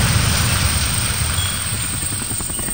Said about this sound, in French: Pendant les cinq premiers jours, Antonio entend le bruit des hélicos des équipes de secours qui survolent la zone à sa recherche.